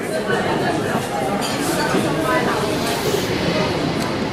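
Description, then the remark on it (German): Steady rumble and rattle inside a Zurich S-Bahn commuter train, heard from a four-seat compartment as it rolls into Hartbruck station, with a constant wash of indistinct passenger chatter underneath. “Wir hocken in einem Vierabteil von einer Zürcher S-Bahn und fahren in Bahnhof Hartbruck ein.”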